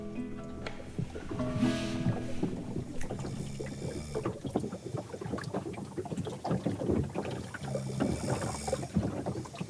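Water sloshes and laps steadily against a boat hull at about half past four in the morning, with irregular knocks and splashes and a light wind rumble, with no voices.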